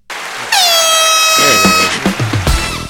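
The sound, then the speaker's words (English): A loud, piercing air horn blasts in abruptly and holds a steady, bright tone for a couple of seconds, then trails off into a few shorter, stuttering bursts. “No, no, the, the air horn though.”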